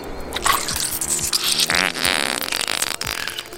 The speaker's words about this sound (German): Und dann passiert es. Unser Tier sprüht dem Gegner eine unglaublich stinkende Flüssigkeit direkt ins Gesicht.